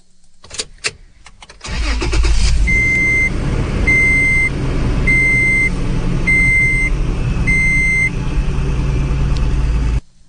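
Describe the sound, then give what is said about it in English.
A few clicks, then a truck engine turns over and settles into a steady idle while a seatbelt alarm chimes five times at an even pace, clear. “First one is uh, a truck starting and the seatbelt alarm, I think.”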